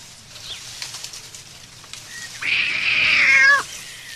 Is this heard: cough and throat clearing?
no